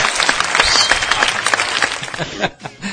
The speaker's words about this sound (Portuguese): Uma salva de palmas para quem escreve o um e-mail.